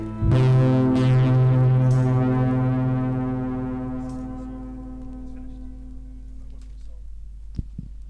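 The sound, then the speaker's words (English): An experimental krautrock piece plays: a loud, sustained low droning chord with rich harmonics swells in and slowly fades over several seconds, with no voices. “I think that counts as a song.”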